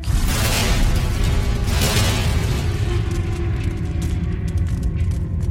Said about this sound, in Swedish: Ljudet är först gällt och gnisslande men det övergår snabbt i ett öronbedövande brak.